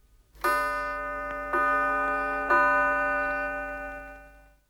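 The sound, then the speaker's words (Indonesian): A clock bell chimes three times in steady succession to mark three o'clock, each bright, ringing strike overlapping the lingering tone of the last before the sound slowly fades out. No voices are heard. “Untuk jam 3, lonceng akan berbunyi tiga kali.”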